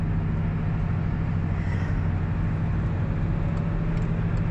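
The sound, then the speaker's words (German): A steady, continuous rumble of road noise from inside a car moving on a motorway, with a low engine drone and tyre hiss holding an even level throughout, no voices. “Ich wechsle mal mit dir gemeinsam die Spur.”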